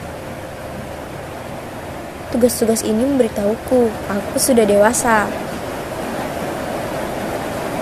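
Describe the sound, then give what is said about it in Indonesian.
Heavy rain pours outside in a steady, unbroken hiss through the whole recording, growing heavier, with a person speaking briefly over it midway before the downpour continues on its own. “Lihat, di luar hujan semakin deras.”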